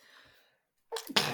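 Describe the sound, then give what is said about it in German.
A single loud sneeze bursts out after a brief quiet moment, with a sharp inhaled build-up followed by an explosive release. “Huch, Entschuldigung. Gesundheit.”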